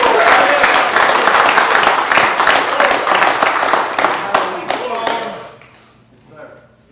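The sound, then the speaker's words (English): An audience bursts into loud, sustained applause as a hand clap of praise during a sermon, dense overlapping hand claps filling the room for several seconds before tapering off into a quieter murmur of voices. “Give him a hand clap of praise if you believe that.”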